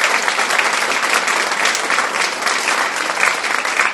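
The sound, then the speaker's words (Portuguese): Steady applause sound effect added in editing fills the whole stretch, a dense, even patter of many hands clapping at a constant loud level with no voices. “editor vai colocar palmas agora aqui, que é foda demais.”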